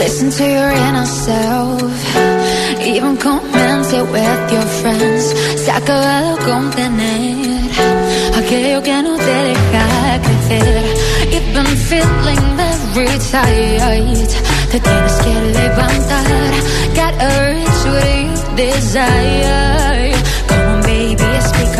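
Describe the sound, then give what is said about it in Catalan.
An upbeat pop song from a 2020 album, with a female lead vocal singing over a steady beat and full band; a heavy bass line enters around ten seconds in, driving the rest of the track loudly. “També té àlbum, eh? Això va ser el 2020, es diu …, i sona així.”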